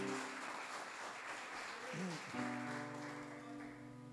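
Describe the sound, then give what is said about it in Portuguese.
A church audience applauds the word of God steadily for about four seconds, a dense, even wash of clapping, with a brief voice and a sustained low musical tone rising beneath it midway. “E toda a igreja diga: se você pode, coloque a sua Bíblia no colo e aplauda bem bonito a palavra de Deus.”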